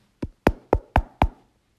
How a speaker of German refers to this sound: Das Lumpetier klopfte noch etwas stärker dagegen.